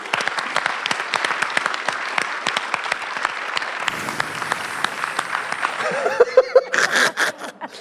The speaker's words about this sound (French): Applaudissez bien fort Panayotis Pasco et Sophie-Marie Laroui.